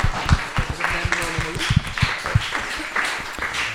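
An audience applauds with a steady patter of many hands clapping, irregular and moderately loud, while a voice briefly speaks over the applause.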